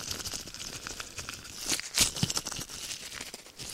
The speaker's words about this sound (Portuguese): O ranger de uma luva de latex.